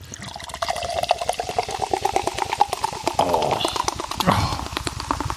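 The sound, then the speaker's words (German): A bottle of cider is opened and liquid pours out in a steady, gurgling stream, splashing briefly near the end, with a short voiced exclamation. “Dann mache ich mal wieder auf.”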